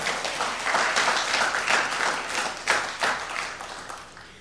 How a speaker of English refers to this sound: Give Jesus a great big hand clap.